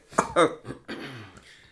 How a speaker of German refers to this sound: verschluckt sich, ne?